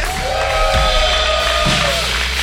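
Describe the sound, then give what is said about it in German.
A crowd at a church service applauds and cheers for Rüsselsheim in a dense, steady wash of clapping, with higher whoops and yells rising out of it. The noise stays loud and continuous for the whole stretch. “Habt ihr einen Applaus für Rüsselsheim?”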